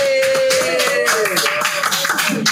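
A crowd claps loudly and steadily for a few seconds, a dense patter of many hands, while a sustained whistle-like tone rings above the applause. The applause welcomes a visiting indie band from Jogja on the show The Barbar Dengar.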